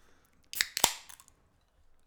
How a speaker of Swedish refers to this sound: Ljudet av hur jag knäcker en öl, för att jag kan inte podda nykter.